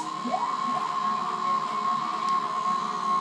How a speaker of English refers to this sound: but it's an analog drone synthesizer that ah. uses the information on the weather oh that's right yes this is one of my personal favorites this is great to have going when you're working um, it's, it's awesome.